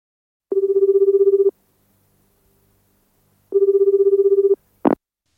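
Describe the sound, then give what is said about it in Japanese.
A telephone at a company, Yamada Denki, rings twice as a man calls it, each ring a steady trilling burst about a second long with a pause between, followed by a short sharp click as the receiver is picked up. No one speaks. “男の人が会社に電話をしています”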